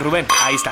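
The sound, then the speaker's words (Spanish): A single bright clink of champagne glasses rings out in a toast, its clear ringing tone lingering under a man's voice speaking. “Meta, ahí unos clinch, un clinchín,”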